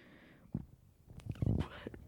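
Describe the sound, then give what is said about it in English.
A brief burp with a low, rumbling gurgle that swells for about half a second, preceded by a shorter throaty sound, with no talking. “burp.”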